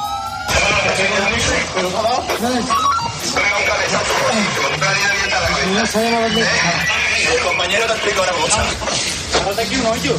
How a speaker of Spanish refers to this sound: y esto que estás escuchando, esos coches policiales, pues tienen que ver porque nos vamos a ir allí, a las 3.000 viviendas de Sevilla,